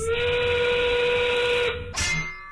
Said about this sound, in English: The 5 o'clock whistle, powered by smart local Union 9 sheet metal workers.